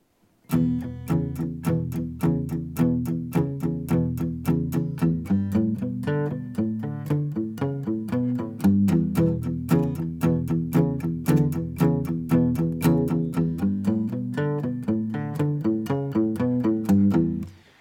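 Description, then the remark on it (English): A guitar plays a steady, bouncing shuffle pattern of low repeated notes, with a short palm-muted lick woven in to break it up. It stays loud and even throughout, with no talking. “so if you're playing that shuffle pattern and you want to break it up, you can integrate this lick. Here's how that would sound.”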